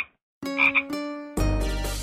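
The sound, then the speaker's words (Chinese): A toad croaks in a few drawn-out, buzzy calls, then breaks into a louder, rougher croaking that continues to the end. No one speaks. “大明湖，明湖大，大明湖里有荷花，荷花上面有蛤蟆一戳一蹦的。”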